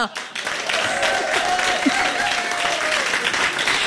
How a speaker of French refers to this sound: Je vous demande d'applaudir chaleureusement les improvisatrices et les improvisateurs d'aujourd'hui.